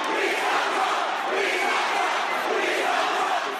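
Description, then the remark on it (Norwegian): A crowd of a couple thousand protesters, many from the Black Lives Matter movement, shouts and chants "We stopped Trump" at an arena after a Trump event was cancelled, a loud, continuous roar of many voices, with no single speaker standing out and no pauses throughout. “Vi stoppet Trump, ropte de da det ble klart at arrangementet ble avlyst.”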